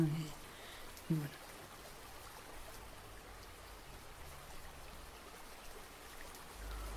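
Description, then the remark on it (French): Steady rain falls in a dense, even hiss with soft patters throughout, and a brief voice murmur near the start. “Oh non, de nouveau il pleut.”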